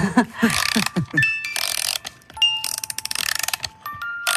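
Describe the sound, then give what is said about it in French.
A Slavic-model music box, with a crown that turns in front of a mirror, plays Slavic music: its winding mechanism ratchets in quick, even clicks, while bright tinkling notes ring out sparsely over the turning gears. A voice briefly murmurs at the start. “Une couronne qui, qui, qui tourne aussi devant le miroir.”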